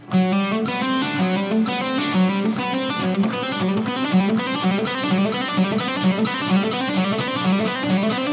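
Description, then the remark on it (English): An electric guitar with a distorted, effects-laden tone plays a steady hammer-on exercise using fingers one, two and four, a fast repeating pattern of legato notes cycling over and over at an even, loud level with no talking. “So, again, you could do this uh, hammer on exercise.”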